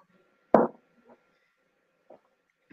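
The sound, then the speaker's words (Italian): A single sharp clink of glasses touched together in a final toast, fairly loud, fading quickly, followed by a few faint soft knocks in an otherwise quiet room. “Facciamo vabbè, un ultimo brindisi”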